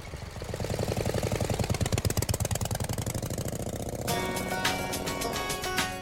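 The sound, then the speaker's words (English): A motorcycle engine runs with a steady, rapid putter as a couple travels through a park on it, then the tone turns harsher and brighter for the last couple of seconds, with no voices. “There was a couple who were traveling through the park on their motorcycle, trailing their music behind them.”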